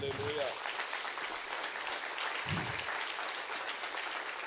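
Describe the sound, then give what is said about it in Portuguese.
A crowd at a sermon claps steadily for several seconds, applauding God, a dense, even wash of applause, with a brief voice heard at the start and another short vocal burst partway through. “Pode aplaudir a Deus, sim.”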